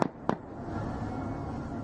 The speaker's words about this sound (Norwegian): En av mennene om bord i kystvaktbåten har med våpen. Så hører vi to skudd,